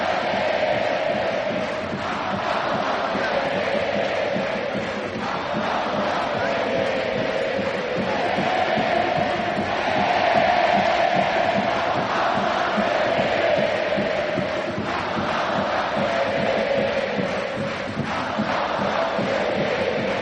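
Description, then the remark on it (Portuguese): A huge stadium crowd of Liverpool football fans sings a slow, sustained chant in unison, voices swelling and holding long notes with a dense roar underneath, steady and loud for the whole stretch. “que é, é um canto que a torcida do Liverpool, uma música né, que a torcida do Liverpool adota”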